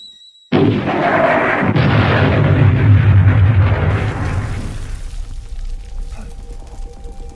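A sudden, loud explosion bursts out after a brief quiet, followed by a heavy, deep rumble that slowly fades over several seconds with lingering debris-like crackle. No voices.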